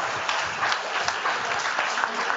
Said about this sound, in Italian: Un applauso per i ragazzi di Unisì che si sono impegnati tutti i giorni.